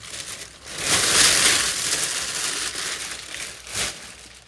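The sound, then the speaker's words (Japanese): Fabric rustles and crinkles as clothes are handled and folded during a seasonal wardrobe change and decluttering, a steady stream of soft swishing that swells in the middle and near the end, with no voices. “衣替え&断捨離しつつだらだら話しました”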